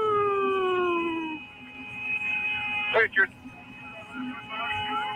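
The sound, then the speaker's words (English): An eerie, outer-space-like whistling wail holds steady, sustained tones after an opening downward glide, with a brief clattering burst midway and a low murmur underneath. “Yeah, It's a whistling, you know, like an outer space type thing.”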